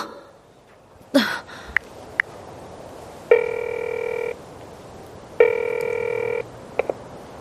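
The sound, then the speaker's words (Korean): A telephone rings twice, each ring a steady electronic trill lasting about a second, separated by a pause, with a few faint clicks and handling noises around it and otherwise quiet. “어, 왜 안 오고 전화야?”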